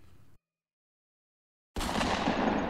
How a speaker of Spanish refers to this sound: El disparo sonó y los vecinos del barrio se presinaron pidiendo a Dios que ningún conocido fuera blanco del proyectil.